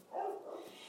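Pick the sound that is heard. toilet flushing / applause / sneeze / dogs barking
dogs barking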